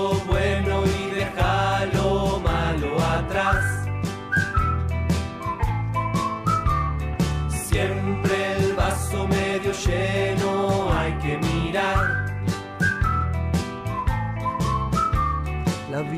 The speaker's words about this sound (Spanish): Junta los labios y empieza a silbar.